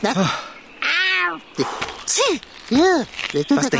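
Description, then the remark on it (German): A male cat meows several times while being held before being set down among wild garlic leaves in a city forest, its calls rising and falling in pitch, with short pauses between them; a person speaks softly in between the meows. “Dann beiß mal nicht rein in diese Blätter hier, Kater, wenn ich dich jetzt auf den Boden setze.”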